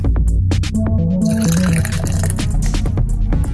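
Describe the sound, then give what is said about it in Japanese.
Beer pours steadily into a glass, a continuous bubbling, gurgling stream whose pitch rises as the glass fills, fairly loud and with no talking over it. “今日ねもうプシュってやっちゃった先になんで継ぐ音だけで我慢してね”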